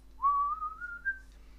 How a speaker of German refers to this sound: Und ich habe versucht zumindest in jedem Teil die Melodie gesummt mm, oder gepfiffen.